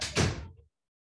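A single door shuts with a solid, full-bodied thump that rings out briefly and fades within about half a second. No voices are heard.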